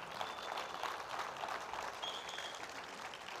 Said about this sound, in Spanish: Y dale un fuerte aplauso al Señor ahí en esta mañana.